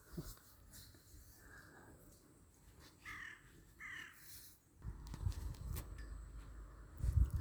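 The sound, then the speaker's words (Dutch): A crow caws twice in quick succession, harsh, over a quiet outdoor background that turns rumbly and noisy toward the end. “De kraai geeft elke keer het startsignaal.”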